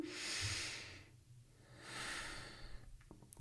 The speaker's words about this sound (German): Und ein und jetzt ähm, einmal tief atmen.